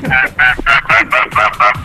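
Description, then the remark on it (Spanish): A person imitates a goose with their mouth, letting out about seven loud, nasal honks in a quick, steady rhythm. “Tres, a, cinco, veces el sonido del pato ganso.”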